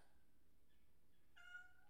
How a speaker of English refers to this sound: Hold on, let me put my cat outside, otherwise she's going to be crying all the time.